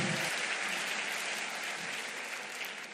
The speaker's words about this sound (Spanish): Gracias por aplaudir, varona de Jehová.